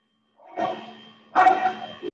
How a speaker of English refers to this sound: the the dog won't stop barking so i was just like ah here wants to be part of the podcast it's fine